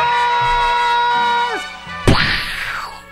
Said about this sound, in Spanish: son cohetes, no se asusten, son cohetes.